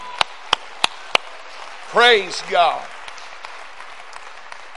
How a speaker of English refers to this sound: Come on, let's clap our hands for the word of the Lord.